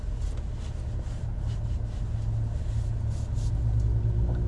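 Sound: car interior road rumble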